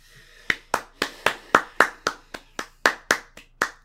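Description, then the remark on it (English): A quick run of about fourteen sharp, fairly loud hand claps, spaced unevenly as one person claps rapidly to mimic a crowd's applause. “It was a real clap. Like it was people clapping, like you would.”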